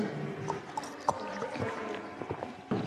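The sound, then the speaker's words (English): Water splashes and trickles, with soft gurgles and small clinks scattered unevenly across a few seconds, like liquid being poured into a container. No one speaks. “Sorry, I'm going to need quite a bit of water in this.”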